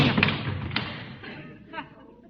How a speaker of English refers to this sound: I'm sorry I dropped the hammer on your foot, Mr. Conklin. That's all right. I have another foot.